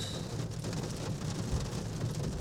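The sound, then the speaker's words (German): Heavy rain pours down steadily, heard from inside a car, a dense, continuous hiss of water with no pauses, loud, with a low rumbling undertone and no one speaking. “pünktlich zum Feierabend hat der Himmel sich aufgetan und es ergießt sich hektoliterweise Wasser”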